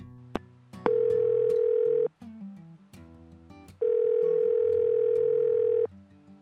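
A telephone ringback tone on an outgoing call from a radio station to a fan: two long, steady electronic tones, each lasting about a second or two, separated by a pause, loud and clear with some faint background sounds between them.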